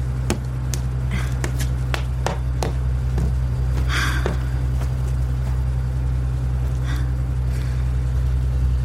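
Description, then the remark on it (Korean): A bus bound for Chungju idles at a bus station with a steady, deep engine rumble throughout, while sharp clicks and knocks from movement cut in at irregular intervals. No one speaks. “서둘러 대합실로 들어가 충주행 표를 끊고 버스에 오른다.”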